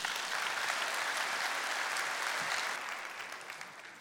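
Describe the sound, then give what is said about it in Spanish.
An audience applauds Christ steadily, a dense wash of many hands clapping at an even level, easing off slightly toward the end without stopping. No one speaks. “Un aplauso a Cristo.”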